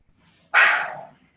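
A single loud, sharp dog bark, erupting after a brief quiet moment and trailing off quickly, with no one talking.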